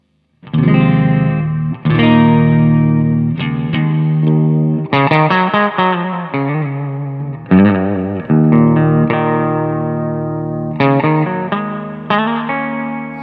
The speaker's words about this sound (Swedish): Det här är en hel hög med distorsioner som, som man eh, nästan inte hör som distorsion fast de finns där i ljudet så att man uppfattar det som skimmer.